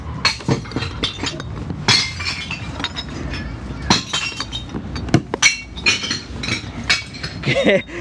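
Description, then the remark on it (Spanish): Glass bottles crash and clink one after another as they are dropped into a glass recycling bin, loud, with rattling shards and bursts of breaking glass, and voices talking briefly between the impacts. “vamos a reciclar vidrio”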